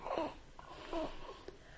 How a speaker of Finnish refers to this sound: Niin kuin täällä taas tämä mun pieni assistentti on hyvin mukana. Haukottelee ja örisee.